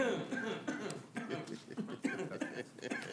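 Someone clears their throat during a board meeting in a few rough, gravelly bursts, with brief breathy pauses between them and some faint vocal noise mixed in.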